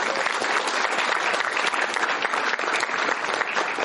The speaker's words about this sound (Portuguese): gostaria de uma salva de palmas para eles.